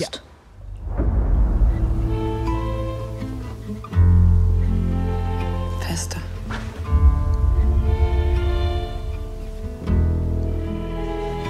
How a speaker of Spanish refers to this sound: Pues sí, esta música es la banda sonora de La Emperatriz Rebelde. Esta película de Marie Kreutzer, eh, una película austríaca como su directora, eh, de dos horas justas de duración